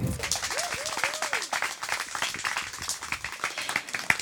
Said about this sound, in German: Das heißt, Start Nummer 1 im Finale holt sie auf die Bühne mit Applaus, mit Motivationsapplaus.